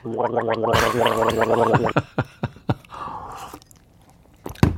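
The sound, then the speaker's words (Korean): Gargling, played as a radio show's treasure-hunt quiz sound: a bubbly, rattling gurgle for about two seconds, followed by several sharp wet clicks and a softer gurgle, then a final splashy spit or swish. “가글 소리입니다. 가글 소리.”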